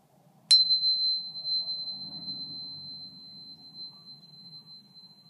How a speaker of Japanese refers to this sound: うまくクリスタルチューナーの音が入るといいんですがやってみましょう。